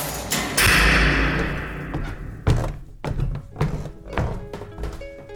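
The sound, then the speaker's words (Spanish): A door slams shut as Scrooge shuts it behind him before climbing the stairs: a loud boom that rings out and fades, followed by a scattering of dull, uneven thuds and knocks. “Dentro estaba todavía más oscuro, así que encendió una vela y cerró de un portazo antes de subir las escaleras.”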